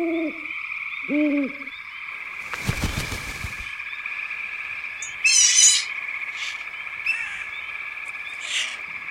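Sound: owl hooting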